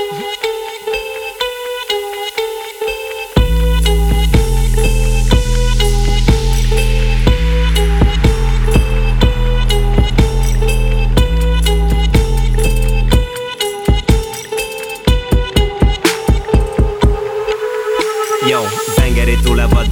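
A rap track plays loudly: a plucked, melodic intro gives way to a heavy bass beat after a few seconds. The bass briefly drops out midway before pounding back in. No one talks over it.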